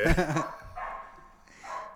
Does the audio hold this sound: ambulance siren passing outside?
no